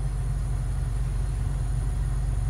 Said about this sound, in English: Anyways, oh, finally, the train has stopped. I mean, it's gone, and they're they're putting it up.